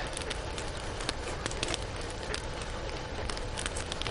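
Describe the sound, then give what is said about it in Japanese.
A campfire burns steadily at night in the mountains, in complete darkness, with a continuous rushing hiss and scattered sharp crackles and pops breaking through at irregular moments. No voices are heard. “我々はですね、あの、夜中の、えー、山の中で、真っ暗い中で焚き火を囲んで話をしているわけですが、そろそろ夜も深まってきたんで”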